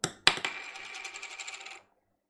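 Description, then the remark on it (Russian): A small cork tossed onto a table, as in a scene with Hugh Laurie's character: a couple of sharp clicking hits, then a bright, ringing rattle that spins and settles for over a second before stopping, with no voices. “Ну вот так и пишется Джон и типа кидает что-то, вот звук, издаваемый э, а, пробочкой по, по столу, это его фамилия.”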